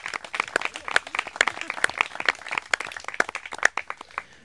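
A small group applauds the event's sound technician, with dense, irregular hand claps running steadily for about four seconds at a moderate, even level, and no voices over it.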